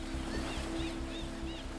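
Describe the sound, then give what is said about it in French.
Steady, continuous rush of ocean waves washing onto a beach, moderately loud and even, with faint repeating high chirps drifting over the surf. “Leurs rires résonnent au loin, couverts par le bruit des vagues.”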